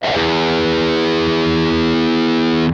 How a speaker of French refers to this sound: Alors je vous fais écouter la note la plus grave sur une guitare accordée de façon classique. Donc sur une guitare 6 euh, cordes, la note la plus grave ce sera un Mi. Donc je vous la fais écouter tout de suite.